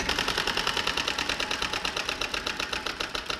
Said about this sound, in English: step up to the wheel. You get three spins. Go ahead and grab it and give it a good spin. All right, let's try it. Let's see.